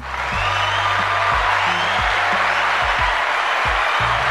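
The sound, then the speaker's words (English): A dense burst of clapping and cheering from a crowd fills the moment, loud and steady throughout, with low thumping beats underneath and no one speaking. “Another round of applause for them, by the way.”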